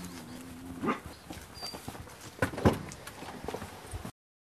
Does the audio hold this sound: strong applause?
no